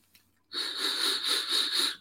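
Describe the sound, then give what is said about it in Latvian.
A vape coil whistles loudly during a draw, the device held right up to the microphone: after a brief quiet moment, a steady high-pitched whistle rides over a rushing airy hiss that pulses slightly. No one speaks. “viņš svilpo tāds skaļš. Nu, koila, koila, tas ir normāli. Šī tā skaņa.”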